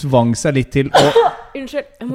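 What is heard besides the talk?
sneeze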